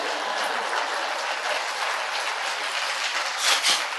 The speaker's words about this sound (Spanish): Ahora, bueno, aplauda al abuelo, gracias.